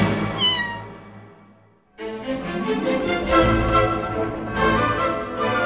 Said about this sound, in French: Ah non, non, non, ça c'est un chat, hein, pas un serpent.